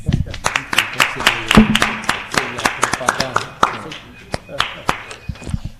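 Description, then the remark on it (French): An audience applauds the participants after an 18-minute exchange. Dense overlapping claps gradually thin into scattered individual claps toward the end, with some voices faintly underneath. “On va de les applaudir, s'il vous plaît.”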